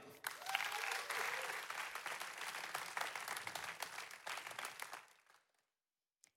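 An audience breaks into steady, dense applause lasting about five seconds, a thick wash of many hands clapping that fades out quickly into silence.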